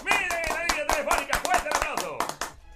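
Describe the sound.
A short burst of applause: a dozen or so sharp, irregular claps at a steady loudness, mixed with wordless cheering voices, ending abruptly after about three seconds.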